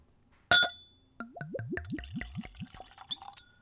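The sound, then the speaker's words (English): A sharp glassy clink, then whiskey glugs from a bottle into a clean Glencairn whiskey glass in a quick run of about seven or eight gurgling pulses, clear, with no talking. “Let's go for a pour.”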